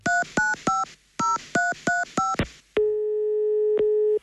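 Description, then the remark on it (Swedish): A telephone call to the Swedish Pensions Agency: seven short keypad beeps are dialed in quick bursts, followed by a steady, sustained ringing tone with one brief break, loud, with no voices. “Mm, han ringde till Pensionsmyndigheten och hon nappade inte alls.”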